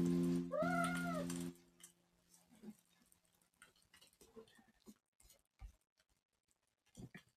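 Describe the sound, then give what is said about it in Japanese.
A cat lets out one loud, drawn-out meow with a rising then falling pitch, followed by quiet scattered patters and soft clicks. “えー、っと、にゃんって泣いてましたね。”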